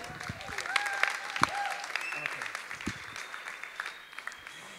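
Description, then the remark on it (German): A brief burst of audience applause, dense clapping from a crowd that swells quickly and then thins out, with faint voices mixed in; applause at a stage show while the performer changes costume. “Ein kurzer Applaus, dann kann ich mich umziehen.”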